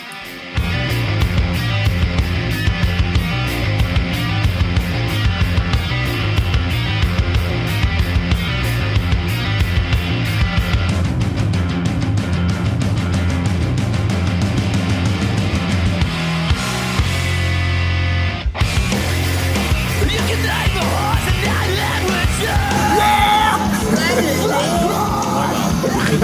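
Loud, aggressive rock with harsh distorted electric guitar played on a guitar with an aluminium neck, pounding drums and shouted vocals, driving steadily before a brief break near the end and then crashing back in.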